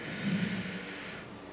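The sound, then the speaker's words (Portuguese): A strong, breathy exhale rushes out steadily for over a second, an airy hiss with no talking around it. “Novamente, a respiração.”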